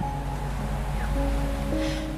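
A steady, broad rush of Atlantic Ocean surf washing against the beach, continuous over the whole moment with no distinct breaks, alongside faint, sustained tonal hums in the background.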